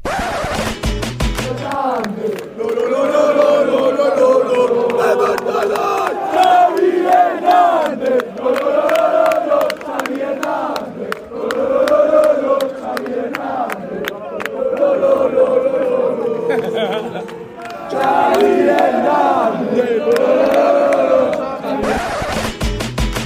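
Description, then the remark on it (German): A large stadium crowd in the away fans' section chants a name in unison, the rhythmic shouts rising and falling in repeated waves, loud and reverberant across the stands for over twenty seconds. “der war im Gästeblock und da hört er jetzt äh, einen bestimmten Namen.”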